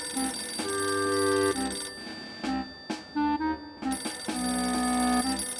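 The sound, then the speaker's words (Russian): An old acoustone, a telephone-like device at the end of a table beside a tall stone chair, rings in bursts of bright, metallic jangling, pausing briefly between rings, with sustained buzzy tones underneath and no voices. “В дальнем конце стола, у высокого каменного кресла, звенит акустон.”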